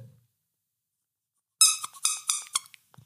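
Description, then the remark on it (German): A rubber squeaky duck is squeezed several times in quick succession, giving a run of loud, high, wheezy squeaks, followed by a short pause and a faint soft thud. “Äh, magst du ganz kurz mal draufdrucken, dass wir wissen, es ist nämlich eine Quietschente.”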